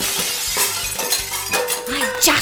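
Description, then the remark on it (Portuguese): Glass shatters in several sharp, bright crashes, with shards tinkling and scattering between the impacts. A brief voice sounds faintly underneath near the end. “de caco de vidro.”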